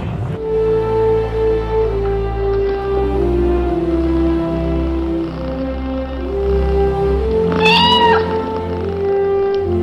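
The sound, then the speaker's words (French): Félicette, the first cat astronaut, sent 157 km above the Earth's surface, meows with a drawn-out, rising-and-falling call near the end, over a steady low droning background; loud, with no talking. “Cette petite chatte est allée à 157 km au-dessus de la surface terrestre.”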